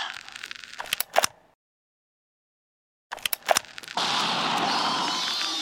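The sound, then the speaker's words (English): A few sharp blasts crack out, then a moment of dead silence, another burst of bangs, and finally a loud, steady roaring hiss like the aftermath of a grenade explosion, the grenade stunning something. “While the grenade has it stunned.”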